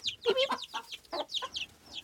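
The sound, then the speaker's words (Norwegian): A hen clucks in a quick series of short calls, while thin high-pitched peeps from small animals beside her, likely chicks, chirp alongside her throughout. “Jeg vet ikke helt hva slags dyrer det er Men de små ved siden av høna”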